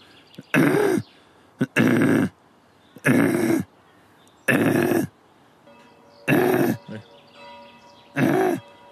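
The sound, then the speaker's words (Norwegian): A voice imitates choking, hacking throat noises, as of a man getting something stuck in his throat at a funeral: six loud, rasping bursts in a steady rhythm, each about half a second long, separated by short quiet gaps with no speech. “Han satt noe i halsen tre ganger og lagde slike merkelige harkelyder.”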